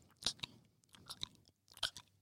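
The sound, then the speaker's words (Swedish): Wet mouth smacking, a voice imitating chewing, with several sharp clicky smacks in a loose, uneven rhythm over about two seconds and no talking. “Bara så här smask.”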